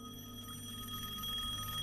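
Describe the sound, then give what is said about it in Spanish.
A telephone rings faintly, sounding distant and muffled, with a steady, sustained tone that continues throughout the short stretch. No one speaks. “Teléfono. Voy corriendo a contestar el teléfono.”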